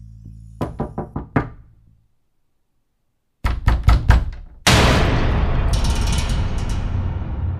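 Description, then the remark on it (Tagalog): Two bursts of rapid knocking on an apartment door, about five sharp raps each, loud with a short silence between, followed by a sustained loud rushing noise. “napahinto si Mikael sa pagsasalita sa harap ng cellphone nang makarinig siya ng pagkatok sa pinto ng kanilang apartment”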